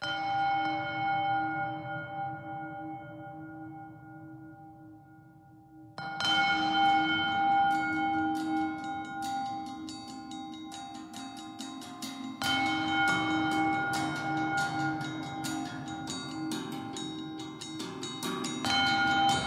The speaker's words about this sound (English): So as the island kind of becomes a more prevalent character in the story, as the game progresses, you hear those bowls more and more often and by the end they're kind of banging away all the time.